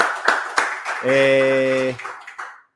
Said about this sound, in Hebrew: שמתי סימניה ואמרתי שפרק 100 יהיה מול קהל. אז קודם כל מחיאות כפיים, מול קהל.